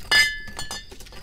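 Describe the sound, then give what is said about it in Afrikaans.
A bright glass clink rings out at the start, with a clear ringing tone, followed by softer clinks and faint pouring as whisky is poured into glasses for everyone. “Dan uh, skink ek sommer whisky vir ons almal.”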